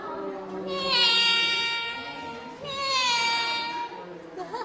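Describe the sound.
A voice sings two long, wavering, nasal calls in imitation of a goat's bleat, part of a song that imitates animal calls from a Rongjiang County school songbook, each lasting about two seconds with a brief pause between, fairly loud and with no other sounds.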